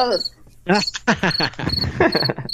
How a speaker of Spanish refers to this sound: Hasta un grillo salió.